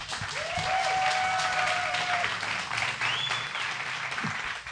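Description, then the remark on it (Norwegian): Sustained audience applause for the panel, a dense, steady wash of many hands clapping at once, loud throughout with a few faint whistles rising above the crowd noise. “Da vil jeg at dere skal klappe ekstra godt for det fantastiske panelet vårt.”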